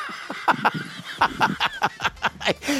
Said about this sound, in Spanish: ya te lo puso el guajolote. Te lo, puso Joel el guajolote, eh, Fue el.